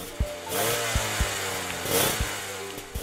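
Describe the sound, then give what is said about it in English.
A small motorcycle engine revs hard twice, a raspy buzzing roar surging and falling back, with a few sharp mechanical clicks in between. Loud, with no voices. “Hang on, let me just rev this motorcycle real quick and then hop off and show Jack Ma how it's done.”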